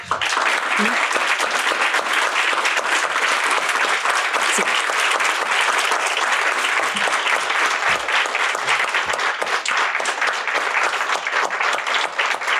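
Sustained, dense applause from a large audience fills the whole stretch, steady and loud with a crackling texture of many hands clapping at once, with no voices standing out above it.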